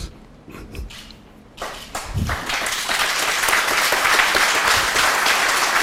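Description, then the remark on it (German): Applause at a sports press conference for a farewell after Bayern's Champions League win starts with a few scattered claps, then swells into steady, dense clapping from many people that keeps building and stays loud to the end. “Applaus auf Pressekonferenzen kommt jetzt auch im Sportjournalismus nicht so oft vor.”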